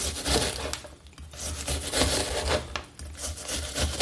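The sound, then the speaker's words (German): Repeated knife chops on a wooden cutting board as an onion is diced into small cubes, a steady run of crisp cuts with a faint rubbing crunch between strokes, with no voices. “Ich schneide mein Zwiebelchen in kleine Würfelchen.”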